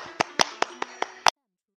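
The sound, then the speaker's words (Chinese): A brief burst of applause welcoming the story session's mentor to analyse a story: about six crisp, evenly spaced claps ring out over a low, steady hum, then everything cuts off abruptly into silence. “有请故事大会导师王老师为我们解析这段小故事，掌声有请。”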